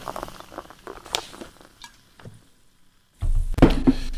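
Scattered light clinks and faint crackles, then a fizzy, top-fermented yogurt drink from 2003, bought at the Rewe around the corner, gushes loudly into a glass, a steady rushing, bubbling pour that runs to the end. No one speaks.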